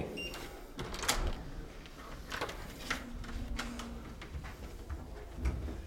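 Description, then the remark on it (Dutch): The door to a room with two bunk beds is unlocked and opened, with a series of sharp metallic clicks and rattles from the latch and handle, followed by a brief low creak and faint room noise. “Ik zal gelijk de deur even open doen.”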